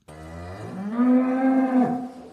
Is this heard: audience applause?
no